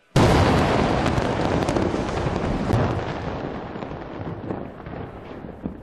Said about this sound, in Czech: Proč včera KLDR vyhodila do povětří budovu styčného úřadu?